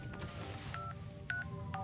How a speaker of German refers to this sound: Rochelle holt ihr Handy raus und wählt die Nummer von Chris.